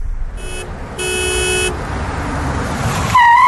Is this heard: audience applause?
no